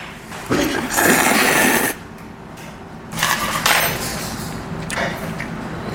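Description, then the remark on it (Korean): Singer John Park slurps Pyongyang cold noodles (naengmyeon) in a few airy bursts: a long, loud slurp first, then two shorter ones, with faint clinks of a bowl or utensils between. No one speaks. “이 소리는요, 모두가 인정하는 평냉 러버, 가수 존박 씨가 평양냉면을 먹는 소리였고요.”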